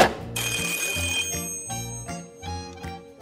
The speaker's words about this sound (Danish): Telefonen den bimler og bamler.